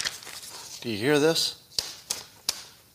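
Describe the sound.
A new, just-installed HP inkjet printer pushing out crisp paper, heard as a few sharp mechanical clicks and ticks at uneven intervals, following a brief spoken question.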